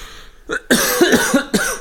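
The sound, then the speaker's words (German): Several harsh, raspy coughs in quick succession, loud, with a brief rough burst first and then a run of broken, gravelly hacks, no talking. “Da kann nicht mit Husten so”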